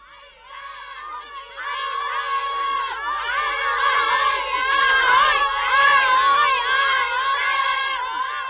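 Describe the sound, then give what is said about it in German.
A crowd of children shout and yell over one another in a continuous, high-pitched clamor during a snowball fight at a building site, swelling louder midway and staying boisterous. “Und dann sausten Martin, Johnny und Mats zurück zum Bauplatz, wo die Schneeballschlacht im vollen Gange war.”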